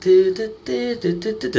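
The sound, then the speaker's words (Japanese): A single voice sings a quick, bouncy tune on repeated nonsense syllables, mimicking a comedian's stage entrance music (debayashi), fairly loud with short rhythmic phrases. “その謎の音楽ですけどね、出囃子それぞれあるじゃないですか。”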